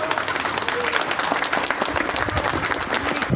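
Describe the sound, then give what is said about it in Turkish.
In Ankara, café and restaurant workers, from waiters to musicians, hold a protest by applauding. Many hands clap steadily and densely throughout, a sustained wash of applause with a faint murmur of voices mixed underneath. “Ankara'da ise kafe restoran işletmecilerinin garsonundan müzisyenine alkışla eylemi vardı.”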